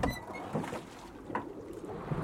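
A hidden boat scrapes and bumps as a man shoves it out onto the water where the river through Tistedal runs into Femmesjøen, with gritty sliding noise and a few hollow knocks, no one talking.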